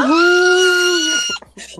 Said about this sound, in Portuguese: Ah! É, é, é, um grito, é grito que vem do fundo da garganta, o um grito preso da nossa certeza.